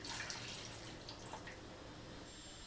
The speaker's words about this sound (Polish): Tak, zatem teraz nasz e, wywar gotuje się już od jakichś 20 minut. Można dolać troszeczkę wody, żeby nie, nie wygotowała się ponadto.